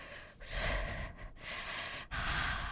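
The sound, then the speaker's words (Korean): A voice imitates heavy, gasping breaths, loud, several ragged inhales and exhales in a rough rhythm with brief gaps between them, no words spoken, breathing with the mouth at the gap of a stuck bathroom door as the air inside runs short. “화장실 문 틈에 입을 대고”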